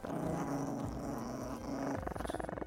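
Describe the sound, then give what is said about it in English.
A toy poodle and a chihuahua growl viciously and continuously, a low rumbling snarl that swells and pulses, ending in a series of rapid, throaty vibrating bursts. Fairly loud, with no talking. “My toy poodle Spike and my chihuahua Renfield, who were normally friendly to most people, did not like them and growled pretty viciously.”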